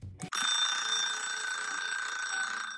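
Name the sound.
alarm clock ringing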